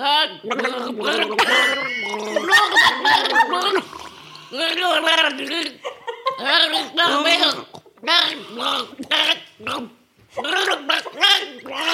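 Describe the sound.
Someone gargles liquid while singing a song as a challenge, producing loud, bubbly voiced bursts in repeated stretches with short pauses between, sustained for several seconds at a time.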